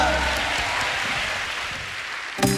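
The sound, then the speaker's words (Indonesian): An audience claps for God in worship, a dense, even patter of many hands that holds at a moderate level before ending in a brief, sharper burst. “Tepuk tangan bagi Tuhan yang luar biasa.”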